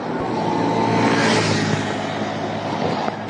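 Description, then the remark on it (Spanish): Steady roar of street traffic, with engine hum and tire noise from cars going by in a continuous wash and no clear gaps; the cars do not stop. “No, es que no me puedo aventurar así porque no crean, los carros no se paran.”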